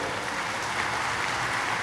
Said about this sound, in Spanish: Es más, en esta mañana yo quisiera pedir un aplauso para todas las madres solteras y los padres solteros que están aquí el día de hoy.